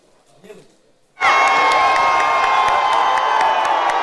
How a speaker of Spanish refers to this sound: Así celebran en Brasil eh, tras darse a conocer los resultados de las elecciones presidenciales.